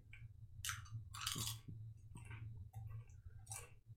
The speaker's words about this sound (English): Well, can you chew any louder? I can still hear in this ear.